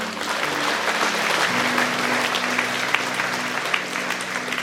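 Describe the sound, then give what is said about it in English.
Sustained applause from a sizable audience at a religious service, giving the Lord a hand, a dense, steady wash of clapping hands lasting several seconds with a low tonal hum beneath it and no one speaking. “Let's give the Lord a hand, shall we?”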